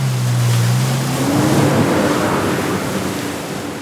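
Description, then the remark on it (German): Two jet skis roar loudly not far away, their engine pitch sliding upward as they race toward the shore at high speed and make a last sharp turn in the water, with rushing spray and churning water filling the background. “näherten sich dem Ufer mit hoher Geschwindigkeit und machten gleichzeitig eine letzte scharfe Kurve im Wasser, gar nicht weit von uns entfernt,”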